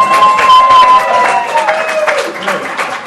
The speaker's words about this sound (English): Yeah, applause, please. Come on.